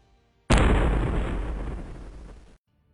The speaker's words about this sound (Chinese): 轰隆一声，半空中传来一声惊天动地的响声